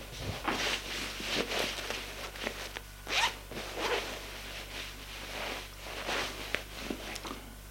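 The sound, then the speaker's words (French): A clothing zipper rasps repeatedly in quick, uneven pulls as a woman undresses, fairly quiet, with a low steady hum underneath and no voices. “Elle se déshabille.”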